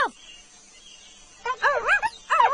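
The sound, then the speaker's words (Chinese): A maned wolf calls: a brief cry at the start, then two loud, wavering whine-like calls whose pitch swoops up and down, separated by a short pause. “如果你听到棕狼的声音，就说棕狼，棕狼。”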